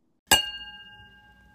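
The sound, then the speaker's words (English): A single bright clink of glasses touching in a toast, with a clear ringing tone that lingers and slowly fades over about a second. No voices accompany it. “So, cheers to that. Yes, cheers.”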